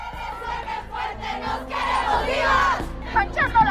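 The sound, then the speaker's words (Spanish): A large protest crowd chants and shouts together outdoors in the streets of Mexico, voices rising and falling in rhythmic waves, with sharp individual yells cutting through the dense, sustained roar near the end. “¿Quieres escuchar los cánticos, los gritos? Esto sucedía ayer en las calles de México”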